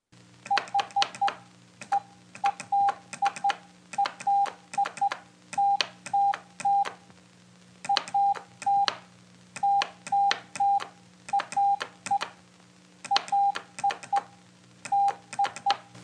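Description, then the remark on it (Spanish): A steady, fairly loud high tone keys on and off in short and long beeps, grouped in bursts with brief pauses, like a Morse code message, with sharp clicks along with each beep. “Si escuchamos un mensaje en clave Morse, lo más probable es que aunque solamente escuchemos sonidos, lo importante es que quieren decir, es el mensaje que quieren transmitir.”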